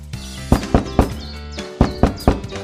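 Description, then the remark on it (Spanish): Loud knocking on the enormous door of a strange house in the middle of a forest at nightfall: two sets of three heavy, hollow raps, the sets separated by a short pause, over a faint low background hum with no talking. “Era una casa muy extraña, con una puerta enorme, y Mayenka la golpeó.”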